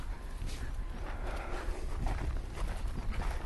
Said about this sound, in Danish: Vi når lige akkurat de her heste.